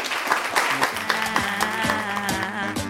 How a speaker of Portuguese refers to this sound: Aplausos para o vídeo que vai entrar pra render.